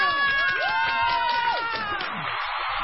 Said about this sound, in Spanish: y quiero un aplauso de todos los que están aquí, la mejor bartender de México.